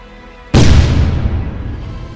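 A single powerful explosion that throws out flames and a lot of dust bursts out of near silence, a sudden roaring blast that rolls on into a long, rumbling decay. No voices are heard.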